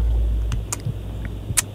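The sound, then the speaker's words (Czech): A low, steady engine rumble fills the inside of a car, with a few brief soft clicks and ticks scattered over the hum. No one speaks. “Ale, ale bacha, sed, sedím v autě, jo, v práci.”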